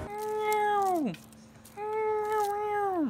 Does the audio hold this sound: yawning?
no